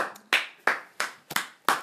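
Five sharp, bright hand claps in a steady rhythm, about three per second, each with a short ringing decay; a lone clapper applauding with no voices.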